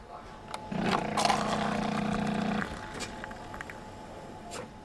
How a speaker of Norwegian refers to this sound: I korridoren er det helt stille. Det eneste man kan høre, er en during fra maskinene og lett prating fra pauserommet.